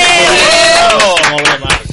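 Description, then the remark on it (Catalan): A few people cheer and whoop, and scattered hand claps break in over the last second, loud and brief rather than sustained applause, at the start of the cinema programme 8 mil·límetres on Ràdio Manlleu. “Aplaudim.”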